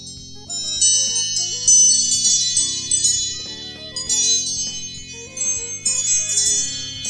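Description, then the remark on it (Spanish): An iPhone ringtone of small tinkling bells plays a repeating melodic pattern over soft, low sustained tones, moderately loud and continuous for several seconds, with no voices. “Campanillas. Las campanillas se escuchan vaquitas.”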